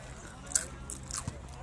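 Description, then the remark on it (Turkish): Soft crunching of someone chewing crisp food, a few irregular bites and crackles spaced over a second or two, fairly quiet with a faint low background hum. “yerken kıtır kıtır yapıyor ses gidiyor mu acaba onu da merak ediyorum.”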